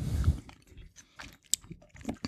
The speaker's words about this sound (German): Zuckerfrei. Ja, fest. Mal richtig kauen. Man merkt auch, dass sie zuckerfrei sind.